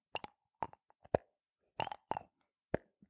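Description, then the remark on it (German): A glass cosmetic jar with a removable plastic insert is twisted, making a series of light clicks and small rattling ticks in irregular bursts, some doubled or clustered, with quiet pauses between and no talking. “Ihr hört bestimmt ein leichtes Klicken.”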